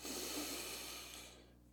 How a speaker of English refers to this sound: I just encourage everyone firstly to just take one deep breath. So just like a nice in through the nose.